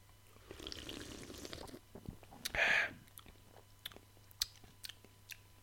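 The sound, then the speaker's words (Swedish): Quiet drinking sounds as people taste IPA beer after a toast: a soft liquid rustle, then a short louder slurp or gulp, followed by small scattered clicks and swallows with no talking. “Ska vi smaka? Skål! Skål!”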